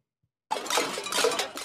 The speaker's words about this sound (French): À Lyon, une dizaine de manifestants réunis, casseroles en main, pour accueillir le ministre de l'Éducation, Papendiaï.